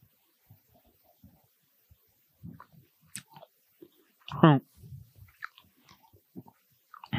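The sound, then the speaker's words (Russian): Someone chews dried prunes and apricots with soft, irregular smacking and biting sounds, broken by a brief louder hummed vocal sound midway, with quiet gaps between the chews. “Кушаем чернослив и курагу.”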